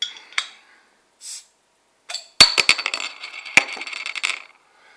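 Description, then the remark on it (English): A metal cap printed with a lighthouse brewery logo is pried off a 12-ounce (355 ml) bottle of 7.2% porter: a brief scrape, then several sharp metallic clicks and a bright ringing clatter as the cap jingles, with no fizz or hiss. “No movement when I take the cap off.”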